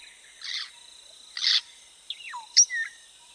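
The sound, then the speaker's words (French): African grey parrots call from the highest branches of tall trees several metres overhead in a protected park: a few harsh, raspy squawks, then sliding whistles and sharp chirps, spaced irregularly over a steady, high insect drone. “Ces jacasseurs sont des perroquets gris du Gabon.”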